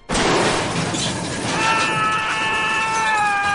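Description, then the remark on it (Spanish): A loud scream: a harsh, noisy outburst that turns into a sustained, shrill wailing cry held for a couple of seconds, with no talking around it. “otro grito.”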